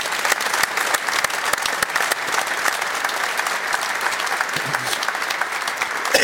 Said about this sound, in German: kriegt von uns natürlich einen Applaus rübergeschickt.